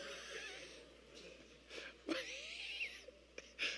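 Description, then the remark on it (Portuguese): A voice imitates the snoring of someone beneath a bed: raspy, wheezing breaths with snorting bursts, fairly quiet, repeating unevenly over a few seconds with no words. “Ronco.”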